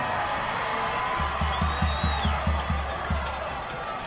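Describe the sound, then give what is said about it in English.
A steady roar of crowd cheering and shouting from the Smyrna sideline at a football game against Riverdale, with a run of about eight heavy, evenly spaced drum beats thumping underneath for a couple of seconds. “That's why the Smyrna sideline is cheering.”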